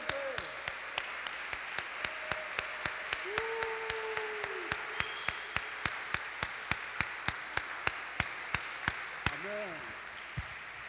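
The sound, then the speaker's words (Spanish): A church audience claps for the Lord in a steady, fast rhythm, sharp unison claps over a continuous wash of crowd noise, with a few voices whooping and calling out between beats. “Así que démosle un fuerte aplauso a nuestro Señor.”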